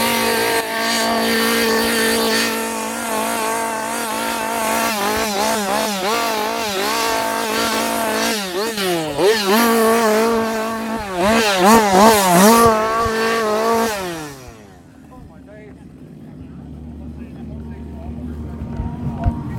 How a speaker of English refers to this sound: Chainsaw after chainsaw at the end. There, we were literally bombarded by chainsaws.